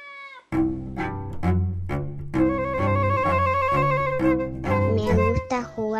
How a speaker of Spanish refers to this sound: Y me gusta este gatito loco.